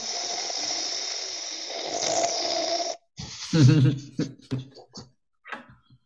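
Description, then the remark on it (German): A long, airy slurp from a nearly empty cup, lasting a few seconds, as a quick sip is taken before starting. A short pause follows, then a satisfied voiced exhale and a bit of talking. “Einmal durchatmen, einmal noch schnell einen Schluck trinken, bevor es losgeht.”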